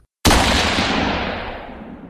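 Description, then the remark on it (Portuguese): A loud rifle shot during a Military Police operation in the Complexo do Alemão, Rio de Janeiro, at 10 p.m. on Friday, 20 September, cracks out suddenly after a brief silence, its sharp blast rolling into a long echoing rumble that slowly fades, heard alone with no voices. “Tiros de fuzil assustam moradores da área.”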